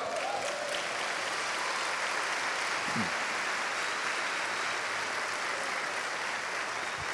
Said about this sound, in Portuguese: Vamos dar um aplauso ao Pai.